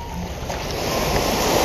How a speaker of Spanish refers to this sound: Quisiera pedirte desde el corazón que empezaras a escuchar las olas del mar. Imagina esa agua fresca tocando tus pies.